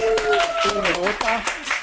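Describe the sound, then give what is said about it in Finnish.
Audience applause from about 901 people at the Digital Sales Day event: a steady patter of many hands clapping at once, with a voice or cheering carrying over the top throughout the short burst. “Eli annetaan iso aplodit kaikille.”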